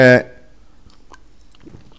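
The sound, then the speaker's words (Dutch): A brief bit of voice cuts off, then quiet sipping and swallowing of water: a few soft wet mouth clicks and a gentle gulp. “sorry, een slokje water.”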